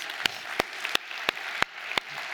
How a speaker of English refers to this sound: By the way, let's make some noise for Monmouth County. What's up, guys?